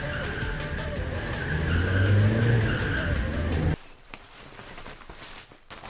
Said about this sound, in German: Immer im Kreis mit quietschenden Reifen und mit Lichtkegeln, die auf die umstehenden Bäume und Laternen einprügeln. Und das Eis platzt und das Eis schmilzt und das Auto fliegt.